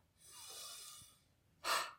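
A long, airy inhale drawn in for about a second, fairly soft, during a breathing exercise, then a short, sharper exhale through the mouth after a brief pause. No talking.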